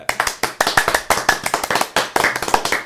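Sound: hand clapping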